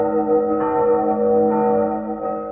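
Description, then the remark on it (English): A school bell rings steadily and loudly to signal the end of recess, its bright metallic tone held continuously with a slight wavering pulse throughout, with no voices. “The bell rang, signaling the end of recess.”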